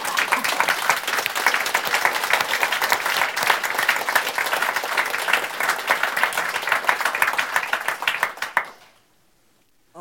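Sustained audience applause in a hall at the end of a talk, before questions from the audience, dense and steady with many hands clapping at once, holding at a strong level for about eight seconds before quickly dying away into quiet.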